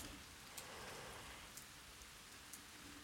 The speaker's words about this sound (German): hört vielleicht im Hintergrund, dass es äh, regnet.